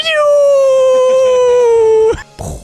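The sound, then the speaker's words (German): A cat lets out one loud, drawn-out yowl, steady for about two seconds and sliding slightly lower, then breaks off into a short rough burst of sound. “Böse Katze. Böse yes, ist aber laut!”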